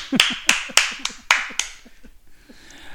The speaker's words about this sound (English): Standing applause.